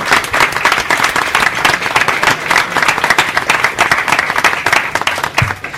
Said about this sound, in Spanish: Creo que han recibido aproximadamente sobre 14 emails referentes a esta grabación. Un aplauso. Y nos han aguantado.